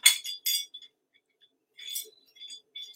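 Metal Boston Marathon medals clink together in a few bright, jangling bursts, a cluster at the start and another toward the end with a short quiet gap between, fairly crisp.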